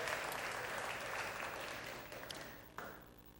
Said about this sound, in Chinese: 我们再一次用热烈的掌声来鼓励佑邦，还有他在我们当中所做的见证。